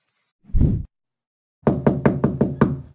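Someone knocks on the door of a friend's home in an apartment building, fairly loud: a single dull thud, a short pause, then a quick run of about six firm knocks. No voices are heard.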